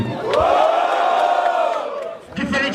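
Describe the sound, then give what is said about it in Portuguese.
A loud crowd at a battle event erupts in sustained cheering and shouting, making noise to vote for the first-round winner, many voices blending into a roaring, rising-and-falling wall of noise that dips briefly near the end before swelling again. “Quem terminou foi Dudu e quem acha que deu Dudu primeiro round faz barulho.”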